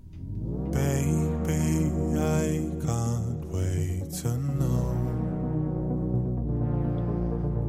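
A loud, upbeat pop song plays alone, with a deep sustained bass, layered melodic lines and bright, rhythmic bursts, easing into softer held tones toward the end.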